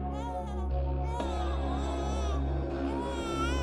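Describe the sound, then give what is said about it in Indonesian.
A baby lying under a banana tree at night cries in continuous wailing bursts that rise and fall over a steady low background hum, moderately loud throughout, with no speech. “Suara tangis bayi itu sungguh menyayat hati.”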